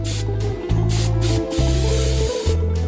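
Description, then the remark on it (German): Perfume being sprayed in four steady hissing bursts, each under a second with brief gaps between them, over a low droning hum. No one speaks. “Und egal, wie sehr er sich auch wusch und schrubbte oder sich mit Parfum einsprühte,”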